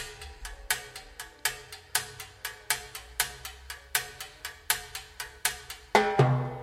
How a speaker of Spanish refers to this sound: Y el timbalero también le pega a, al costado del timbal para sacar un sonido así.